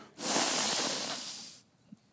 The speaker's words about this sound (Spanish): respiración profunda